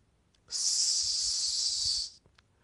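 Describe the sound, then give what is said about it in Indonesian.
A single sustained hiss of a very large snake pulled up from a well, lasting about a second and a half, steady and fairly loud, with near silence before and after. “Ketika ditariknya, tampaklah seekor ular yang sangat besar.”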